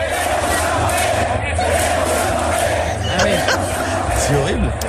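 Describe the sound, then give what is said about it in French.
A large stadium crowd of Real Madrid supporters at Eden Hazard's presentation chants "Queremos a Mbappé" (we want Mbappé) in a loud, steady roar, with rhythmic voices rising over continuous dense crowd noise and no single speaker standing out. “Tu le présentes à tes supporters et les mecs ils scandent le nom d'un autre”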